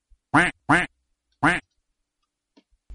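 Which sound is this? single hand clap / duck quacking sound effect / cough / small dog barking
duck quacking sound effect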